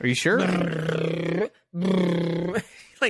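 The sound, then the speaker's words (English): A voice imitates a BMW motorcycle engine with two loud, drawn-out growling revs separated by a brief pause, with short bits of speech and a laugh mixed in. “dude, you're like, dude, that's a BMW bike.”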